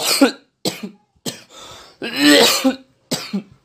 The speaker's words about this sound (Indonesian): Loh kok nggak pakai masker? Batuk pula